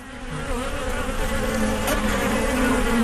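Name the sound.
buzzing of wasps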